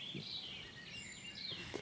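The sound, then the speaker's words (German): Birdsong with thin, high chirps and warbles drifting along steadily, quiet and somewhat sparse, declining in intensity, with no voices present. “Aber man merkt jetzt deutlich, dass es äh, in der Intensität äh, des Vogelgesanges mhm. rückläufig ist, was nicht heißt, dass noch die eine oder andere Art dann hier irgendwie noch auftritt.”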